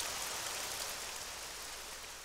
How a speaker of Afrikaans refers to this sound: Maar so vinnig as wat die reën by uitgesak het, is dit verby en die lug is weer helderblou.